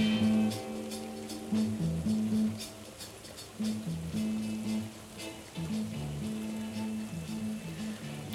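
Steady rain patters and hisses in the background on a rainy day, 29 September 1969, partly masked by low, sustained musical tones that shift slowly in pitch; no one speaks.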